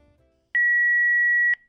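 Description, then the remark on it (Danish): A single steady electronic answering machine beep before a voicemail message sounds loud and clear for about a second, with faint background noise before it and silence after. “Vi skal, øh, vi skal faktisk lige nå den sidste telefonsvarbesked.”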